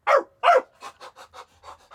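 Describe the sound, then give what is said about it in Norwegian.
A person imitates a dog called Karamell sniffing around: two loud, breathy huffs, then a quick series of softer rhythmic sniffs and pants, with no talking. “og så skal jeg være bikkja, og ja. så skal du rope hva den heter, for det er fortsatt like artig.”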